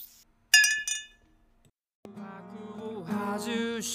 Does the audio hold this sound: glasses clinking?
yes